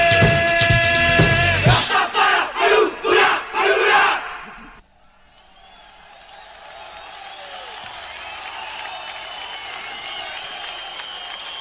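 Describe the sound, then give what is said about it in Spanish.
A big concert crowd roars and cheers in loud rhythmic surges, then it cuts abruptly to a quieter crowd hubbub with scattered whistles. “Y como lo indica este sonido, hoy vamos a hablar de no necesariamente un recital, sino de una serie de recitales alrededor de todo el país, una, rareza también, una cosa típica también de la banda de la cual vamos a hablar,”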